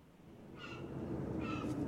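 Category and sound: bird, birds chirping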